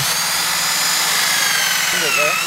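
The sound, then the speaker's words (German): A steady, loud high-pitched mechanical whine of an ordinary electric drill running continuously in the South African savanna, with a brief rising and falling pitch wobble near the end. “Das ist eine ganz gewöhnliche Bohrmaschine, aber an einem ungewöhnlichen Ort.”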